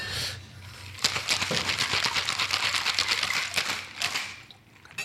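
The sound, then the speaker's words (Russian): A cheap, Chinese-made-looking cocktail shaker holding advocaat rattles in quick, steady rhythm for about three seconds, a bright, dense clatter of ice against metal that starts abruptly and fades out, with no talking. “Очень страшно, потому что шейкер такой прям максимально китайский, там адвокат.”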